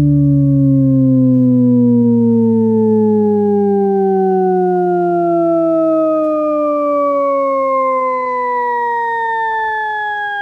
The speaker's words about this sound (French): Alors, Jean-Claude Risset euh, a créé un son qui descend tout en montant.